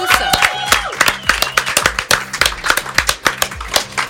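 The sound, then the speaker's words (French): Applause with sharp, steady, rhythmic claps, fairly loud and continuous for about four seconds, over a low humming tonal backing. “C'est vrai, on peut les applaudir.”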